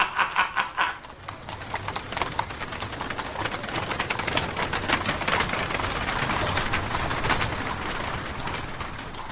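Hooves of a horse-drawn carriage clip-clop in a steady, rapid rhythm, with a rattling, rumbling undertone of wheels, continuous throughout.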